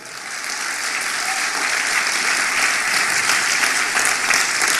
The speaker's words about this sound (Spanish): Alguien dice amén esta noche. Vamos, dele fuerte ese aplauso al Padre.